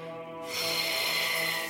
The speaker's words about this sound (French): Tu vas inspirer profondément en imaginant regarder devant toi l'aigle s'éloigner. Et on expire